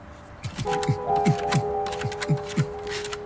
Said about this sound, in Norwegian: Jeg går bort og skraper på døra.